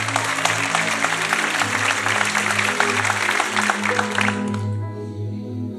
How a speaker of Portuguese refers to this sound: Você pode aplaudir ao Senhor se você crê nessa palavra?